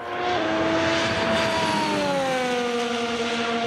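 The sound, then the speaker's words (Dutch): A loud, continuous whine of Formula 1 car engines during winter testing on the circuit in Barcelona, the high pitch sliding gradually downward as cars pass, with a steady roar underneath and no talking. “We beginnen vandaag met de wintertest van de Formule 1 op het circuit in Barcelona.”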